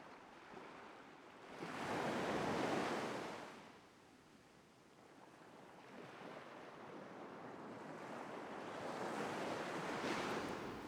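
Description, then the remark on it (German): Ocean waves rush onto the shore in broad, hissing surges, one swelling near two seconds and another building toward the end, with a steady roar of surf between and no voices. “Du hörst das Rauschen des Meeres, riechst die salzige Luft.”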